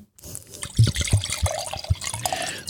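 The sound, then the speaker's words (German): Matsu El Recio, a single-varietal Tempranillo wine from Toro, Spain, glugs and splashes as it is poured into a glass as a refill, a run of irregular liquid gurgles with bright high splatter over about two seconds, no voices. “ist jetzt noch Nachschenken gefragt.”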